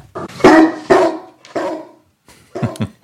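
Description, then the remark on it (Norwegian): A dog barks loudly and close by, letting out a quick, uneven string of about five sharp barks with brief pauses between them. “skal vi prøve oss på torsdagsbikkja, eller?”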